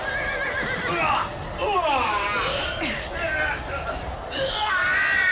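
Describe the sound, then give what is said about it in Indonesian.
A horse, struck in the eye by a stone and throwing its rider, neighs wildly, letting out several loud, shrill whinnies in quick succession, agitated and uncontrollable, over a steady rumble of background noise. “Orang Quraisy itu terpental dari punggung kudanya, tanpa mampu menahan kudanya yang menjadi liar tak terkendali”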